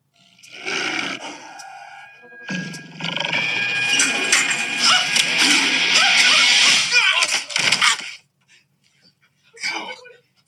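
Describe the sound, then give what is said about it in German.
A tiger in a bathroom roars loudly in long, rasping bursts lasting several seconds, with voices mixed in, then a brief quiet and a short final growl. “there is a tiger in the bathroom.”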